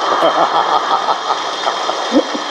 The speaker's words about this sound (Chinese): 谢谢大家，谢谢大家。哎呀，感觉开心的不得了啊！这掌声简直比几万人还响。